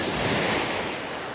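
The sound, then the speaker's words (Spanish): Steady roar of sea surf washing onto a beach, a broad hissing wash that stays loud and continuous throughout, with a slight swell at the start and a faint wind-like rush underneath. “ese verano en que Julio se metía en el agua, en la playa”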